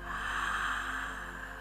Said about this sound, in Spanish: Así que hoy vamos a respirar muy profundo.